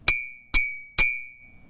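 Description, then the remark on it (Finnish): Three clear, ringing clinks from tapping a mug of cold milk, one of two identical mugs holding equal amounts of milk, evenly spaced about half a second apart, each with a bright tone that lingers and slowly fades. “Miksi mukillinen kuumaa maitoa kilahtaa eri tavalla kuin k”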